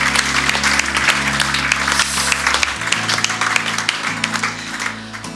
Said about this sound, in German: nochmal einen Applaus dafür, oder? Yeah.